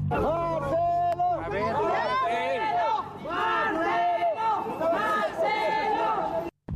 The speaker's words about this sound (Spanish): el ex funcionario fue recibido por simpatizantes que se dieron cita en el lugar y quienes le gritaban Marcelo presidente, con quienes aceptó tomarse algunas selfies.